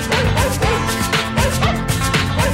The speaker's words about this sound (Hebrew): מי הכניס לפה את כל הכלבים? אני חושב שזה כלב אחד פשוט, אה, שרצו על אה, סינטי כזה.